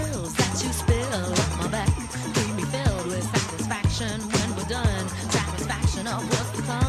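An upbeat 1990 dance-pop song plays loud, driven by a steady thumping beat and bouncy bassline, with wavering sung vocals riding over the groove throughout.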